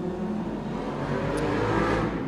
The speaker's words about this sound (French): Voilà, il y a une moto qui passe à fond la caisse.